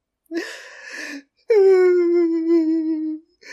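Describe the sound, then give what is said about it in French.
A short, breathy whimpering sob is followed after a brief pause by a long, drawn-out crying wail that slowly sinks in pitch, fairly loud, with no talking, from someone who has fallen into a blue basin. “Cette fois, ce n'est pas la pluie qu'ils entendent, mais bien des pleurs.”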